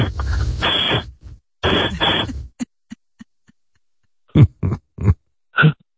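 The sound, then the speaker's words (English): Exaggerated sniffing: two long, loud, breathy sniffs, then a few faint clicks and four short snorting grunts, all made by a person with no talking. “My programming even allows me to sniff like real stupid Bobo.”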